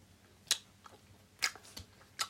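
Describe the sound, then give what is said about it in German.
Quiet chewing with three sharp, crackling bites spaced about a second apart and softer moist mouth sounds between them, as someone chews a hard, sticky, chewy candy. “Dauert auch echt lang zum Kauen.”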